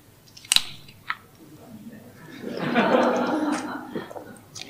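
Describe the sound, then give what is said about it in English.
A couple of sharp clicks, then roughly two seconds of soft, rushing sips and swallows as a speaker drinks water on stage. No one speaks. “Sorry，喝水。”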